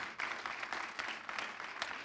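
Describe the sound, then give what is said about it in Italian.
An audience applauds the Lord: many hands clapping together in a dense, steady patter that holds evenly for about two seconds, with no voices over it. “Oh, bello, fate un applauso al Signore.”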